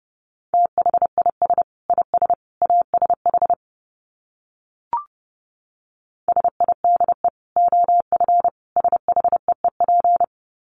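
Morse code sent at about 30 words per minute: a single steady mid-pitched tone keyed in quick dots and dashes, two bursts of sending separated by a pause broken by one brief click.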